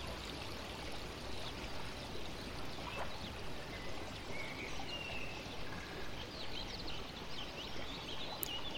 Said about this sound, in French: Suivons le cours de l'eau. Cette fontaine se déverse dans ce canal.